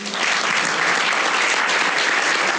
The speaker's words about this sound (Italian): però eh, intanto volevo eh, chiedere un applauso eh, per il dottor Dall'Amico, ma anche per tutte le persone che lavorano con lui